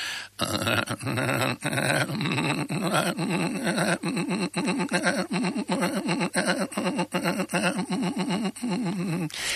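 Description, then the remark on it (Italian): A voice imitates a tram straining as it pulls away uphill: a loud, continuous growling groan with a wavering, labored pulse that lasts nearly ten seconds. “Mi ma il bello era divertente che acchiappai anche il rumore di quando il tram faticava andare in salita perché faceva il muro torto.”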